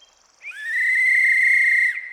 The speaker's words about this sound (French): Mais avant qu'il n'eût le temps de répliquer, Quentin se mit à souffler dans son sifflet, rassemblant ses troupes.